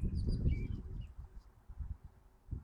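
Eurasian blackbird song, a bird that mimics the calls of other birds: a few short, high, whistled phrases in the first second, faint against a steady low rumble, then fading into the background noise.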